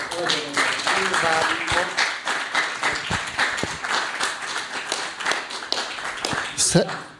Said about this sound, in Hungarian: Én úgy hiszem, hogy tartalmas délután volt, és e, elődőmhöz hasonlóan hadd kérem valamennyiket, de tapsoljuk meg őket.